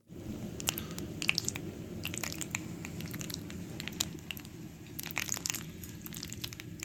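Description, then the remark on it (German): A spoon stirs through thick, squishy food, making wet smacking and squelching sounds with quick, irregular clicks over a steady moist churn, with no talking. “Oh, wenn man da mit einem Löffel einmal so drüber rührt, oh, krass. dieses Schmatzen.”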